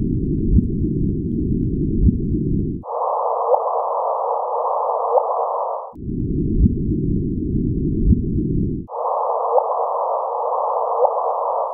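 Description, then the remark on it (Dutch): A gravitational wave passing through the Earth, converted to sound by scientists: an eerie electronic tone, a faint chirp, that alternates between a low, rumbling hum and a higher steady pitch, each lasting about three seconds, repeating twice with no voices. “En, en er was toen ook dat die wetenschappers, om het een beetje uh, nou, invoelbaar te maken, verspreiden ze ook nog een soort geluidsfragment met ja, hoe zo'n geluids- of zo'n zwaartekrachtsgolf dan zou klinken.”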